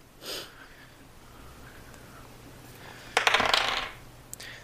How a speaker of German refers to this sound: Dann würfe ich mal mit meinen analogen Würfel. Das sind 4, 2 plus 3.